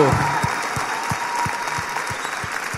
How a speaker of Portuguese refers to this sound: Cara, isso tem que ser aplaudido, pelo amor de Deus. Uau!